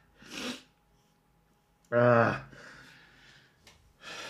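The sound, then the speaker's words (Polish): A sharp breathy intake, then a single loud, voiced sneeze burst trailing into a hissy exhale, followed by a short breath. “o Jezu, znowu mi się kichnąć chce”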